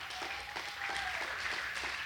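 An audience claps together in a steady, dense patter of overlapping hand claps, moderately quiet and continuous for a couple of seconds, with no talking over it.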